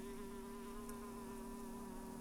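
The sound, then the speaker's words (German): A steady bee buzz drones on without a break, its low hum of beating wings unbroken, with no voices or other sounds around it. “Fast hätte ich wieder meinen Kokon aufgeschlagen. Wegen einer Biene.”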